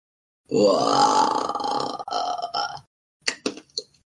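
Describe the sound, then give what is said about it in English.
Someone imitates a zombie with a long, rough, gurgling groan that drags on for a couple of seconds, followed after a brief pause by a few short, choppy grunts. “Surprisingly enough, these zombies make the same noises that Ragnar makes at this time in the morning.”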